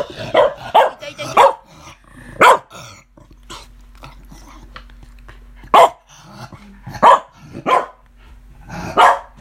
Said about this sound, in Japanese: おっと、今日はワンちゃんも参加してます。静かにしてくださいね。